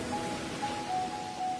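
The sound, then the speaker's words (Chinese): Ocean waves make a steady, hissing wash of surf that swells slightly and never pauses, with a faint thin high tone drifting in and out over it. No one speaks. “听，那是大海的声音”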